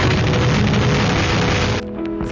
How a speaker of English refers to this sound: Irma roared into the Caribbean at daylight. She was relentless. Category 5. This is what 185 mile per hour winds sound like.